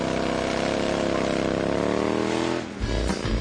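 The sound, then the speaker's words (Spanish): A motorcycle engine drones loudly and steadily, then briefly drops off before revving back up with a rising pitch near the end. “Si tienes una moto, con esta noticia rodarás cualquier cuesta, incluso la de enero.”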